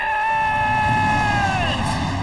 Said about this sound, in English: You hear the roar of the engines.